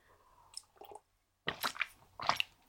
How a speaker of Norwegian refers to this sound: Jeg må ta meg en slurk vann.